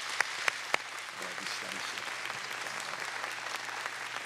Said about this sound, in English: Come on, let's give them a round of applause.